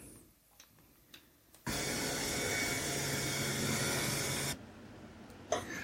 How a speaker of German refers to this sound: So, ähm, Pürieren ja und dann auch noch durch ein Sieb streichen. Mal gucken, was der Pürierstab jetzt so anstellt mit dem mit der Suppe.